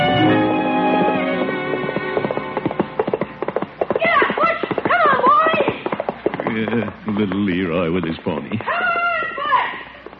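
A sociable pony named Birch clip-clops in a quick, steady patter, broken by several wavering, high-pitched whinnies, all over a bed of light background music.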